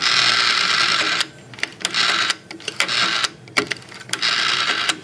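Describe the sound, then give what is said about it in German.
Rotary dials whirring and clicking on an old telephone exchange cabinet fitted with 14 rotary dials: dense mechanical ratcheting in sustained bursts, broken by short gaps and sharp clicks, fairly loud and with no talking. “Und äh, heute macht man ja alles über äh, das Touchpad, aber hier hört, hört man noch die Wählscheiben und das äh, klang dann eben früher so.”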